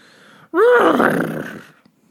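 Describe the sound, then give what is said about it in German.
A person imitates a horse's whinny with their voice, a loud, rising then wavering neigh lasting about a second before trailing off into breathy noise. “Pferd.”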